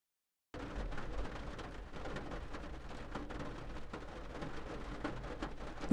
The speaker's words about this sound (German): Der Regen wurde heftiger, schlug prasselnd gegen das Fenster des kleinen Cafés.